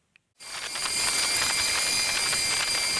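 After a moment of silence, a steady, fairly loud whirring hiss starts up and holds, with high thin whining tones over it. A small drone's propellers hover over a glass surface in Mirko Kovac's lab at Empa in Dübendorf, as the drone presses a pattern of cement-like material onto the glass with a stinger on its underside.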